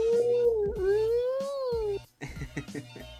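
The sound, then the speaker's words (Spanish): A person imitates a dog's howl with their voice, a long wavering tone lasting about two seconds, followed by a burst of laughter and chatter. “Efectos de sonido que voy agregando a medida que pasa el podcast.”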